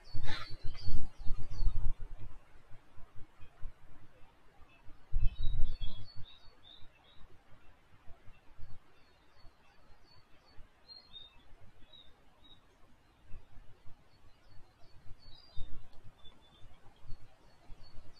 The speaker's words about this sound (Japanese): そう、セミがいっぱい鳴いてますよ。セミだと思うんですけどね。先週ぐらいから急に泣き始めて